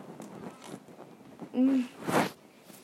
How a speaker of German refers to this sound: Oh! Meine Katze. Hör auf damit. Alter. Alter. Nicht beißen.